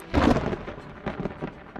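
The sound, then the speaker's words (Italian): Steady rain hisses at the harbour in Seattle, Washington, while a heavy gust of wind from the Pacific rumbles through near the start, then the downpour continues with smaller buffeting surges. No one speaks. “Quando arriva nella capitale dello stato di Washington, il tempo è pessimo. Piove e le folate di vento provenienti dal Pacifico rendono difficile camminare per il porto.”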